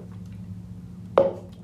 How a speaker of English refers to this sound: Let me take a sip of water real quick.